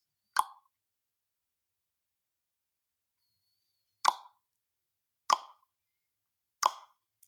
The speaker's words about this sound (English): And a very simple exercise to determine where the tongue position should be is just making the popping sound like this.